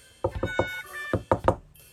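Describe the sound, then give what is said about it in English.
Someone knocks on a back door: three quick, solid raps, a short pause, then three more, over a faint, steady musical tone. “Watson 听到有人在后门嘟嘟嘟嘟敲门呢。”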